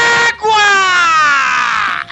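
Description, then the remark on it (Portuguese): A single long, full-throated shout from a man's voice, loud, held for almost two seconds with a slightly falling pitch before breaking off; it sounds like an imitation of someone yelling, in a car driving from the airport in São Luís, Brazil. “E ainda no carro indo do aeroporto para a casa de meus sogros, esse meu cunhado do nada grita a todos os pulmões.”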